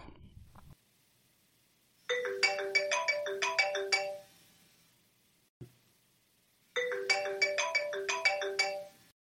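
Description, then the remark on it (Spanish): A melodic telephone ringtone of an outgoing phone call plays in two bright, rapid bursts of notes, each lasting about two seconds with a pause between, heard clearly with no one speaking. “A ver, teléfono, por aquí estamos.”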